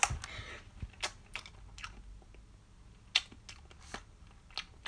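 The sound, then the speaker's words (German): Wet chewing of a soft, slightly sticky black jelly bean, with irregular smacking clicks spread across a few seconds and no talking. “Ich esse Jelly Beans”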